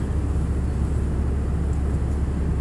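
A steady, loud low-frequency roar of an airplane cabin in flight, the engine drone constant and unbroken throughout with a faint airy hiss above it and no voices.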